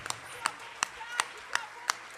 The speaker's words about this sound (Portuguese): Aplauda ele, aleluia.